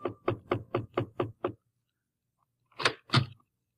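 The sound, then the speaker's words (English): A quick run of seven firm knocks on a wooden chamber door, evenly paced, then a pause and two louder, heavier knocks. Clear, with no voices. “The knocking that came upon my chamber door could have been the raven.”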